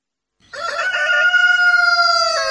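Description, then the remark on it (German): A rooster crows once, loud, in a long, sustained, raspy call that starts abruptly and holds steady for about two seconds with no other sounds around it. “Und ein Huhn hat ihn gesehen, hat ein bisschen mit den Flügeln geflattert und hat gemacht.”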